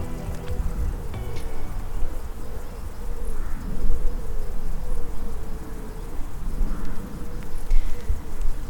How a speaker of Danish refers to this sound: Som altså, man øh, måske kan høre, så øh, er det her en enormt fredelig øh, sommer, sensommerformiddag her øh, ved Kaløvi. Jeg står på Hestehavestien og kigger ud på, øh, på vandet øh, og alt det, det grønne omkring os, træerne og, øh, og engene.